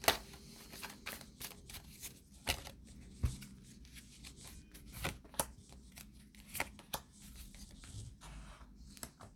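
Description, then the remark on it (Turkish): Tarot cards being shuffled and drawn, a steady series of crisp riffling snaps and soft slides with irregular rhythm, fairly quiet with no voices. “Bir tane de çekelim.”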